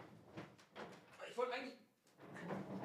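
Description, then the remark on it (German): A desk chair rolls across the floor as the person sitting on it rolls around, its casters rumbling and scraping in a few uneven bursts with short pauses between, fairly quiet overall. “So, ich wollte eigentlich auch, ich habe dir gerade meinen Stuhl gehört, mit dem ich hier rumrolle.”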